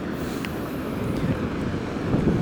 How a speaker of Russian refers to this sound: А сейчас я выхожу к океану. Вот он передо мной. Атлантический океан. Постараюсь подойти поближе, чтобы было слышно шум волн.